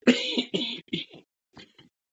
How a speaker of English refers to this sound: Forgive me, I've had a cough for a couple of days.